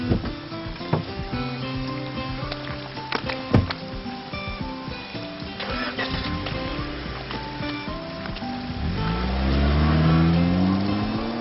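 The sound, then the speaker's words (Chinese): A car engine hums steadily with a few clunks, then revs up as the car drives off to be parked, its pitch climbing and growing louder toward the end. No one speaks. “下车吧，我去停车。”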